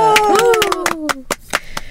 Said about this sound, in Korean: 박수 한번 치고 시작할까요?